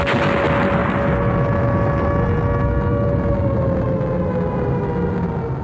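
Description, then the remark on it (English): A loud siren sounds steadily for several seconds as one sustained, unwavering tone over a dense, rumbling roar, with no voices. “Well, hey, uh, do you guys hear that siren? It's time for the fire round.”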